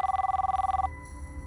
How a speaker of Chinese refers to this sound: 第二天，到了云南的瑞丽境内，他住进了瑞安酒店。刚到酒店没多久，电话响了。